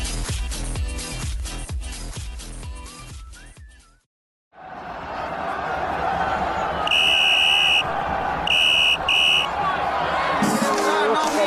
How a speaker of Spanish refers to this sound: el pitido del árbitro y el encuentro finaliza.